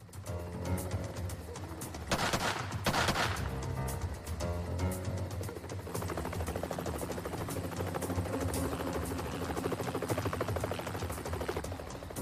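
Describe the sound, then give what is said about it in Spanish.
A helicopter hovers above a barn, its rotor thumping steadily the whole time, while a loud, rapid burst of gunfire from a SWAT team sniper cuts through early on. No one speaks. “Mientras un helicóptero vigilaba al granero desde arriba, los miembros del equipo SWAT tomaban posiciones alrededor del perímetro. Un francotirador del equipo abrió fuego”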